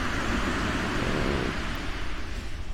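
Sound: ocean waves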